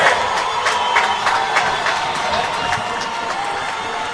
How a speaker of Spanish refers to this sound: Casi nada en el Parque de Santa Catalina, cuando son las 12 de la noche, 38 minutos. Escuchamos a la afición escuchamos a la afición. A la afición.